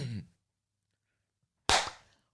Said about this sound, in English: can I nail the clap?